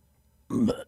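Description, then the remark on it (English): A single short, forced burp attempted on command, more a throaty croak pushed out by a voice than a real belch, lasting under half a second, fairly loud after a moment of quiet. “Can you burp on command?”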